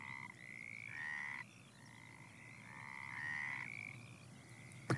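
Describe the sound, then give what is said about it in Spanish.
A frog croaks in a steady run of drawn-out, buzzy calls that overlap and pulse for several seconds, clear over a low background hum, ending with a brief sharp click. “Eso lo replicó la rana.”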